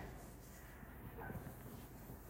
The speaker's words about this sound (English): Oh, there's the dogs.